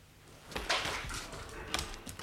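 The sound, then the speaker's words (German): The dining room door opens or shuts with a couple of soft knocks and a brief creaking scrape, fairly quiet against a faint background hush, with no one speaking. “Jetzt die vom Esszimmer.”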